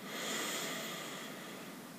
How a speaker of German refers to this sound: Wir atmen wieder durch die Nase ein.